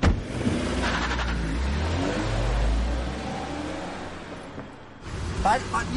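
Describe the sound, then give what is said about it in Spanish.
A car engine rumbles and revs as the driver pulls away to follow a woman who ran off, a deep growl swelling over a few seconds and then easing off, with brief scuffling noises near the end. “Sube al coche y la sigue.”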